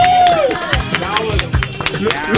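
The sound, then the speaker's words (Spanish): A crowd bursts into loud, steady applause, irregular claps overlapping throughout while excited voices whoop and shout over them. “What aplauso.”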